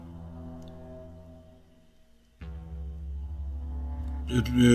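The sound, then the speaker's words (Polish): A sudden, steady, droning continuous tone signal cutting off a connection hums along, then abruptly jumps louder and fuller about halfway through, ending in a harsher, noisier burst. No one speaks. “nagłym, w sensie tym, ciągłym y, sygnałem.”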